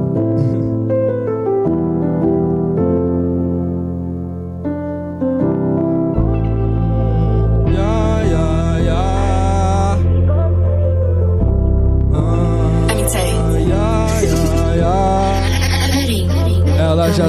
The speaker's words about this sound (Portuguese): solta aí aquele beat que eu quero ver ele fazer o som aqui ao vivo para você.